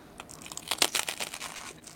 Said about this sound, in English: that was a good crunch. That was a really good crunch right there.